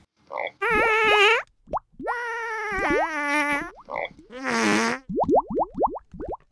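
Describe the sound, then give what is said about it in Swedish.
Loud comic fart noises with buzzing, wobbling tones, broken by short bubbly plops and ending in a quick run of rising bloops, all alone without any talking. “Det skulle just se roligt ut i vattnet med en massa små bubblor överallt.”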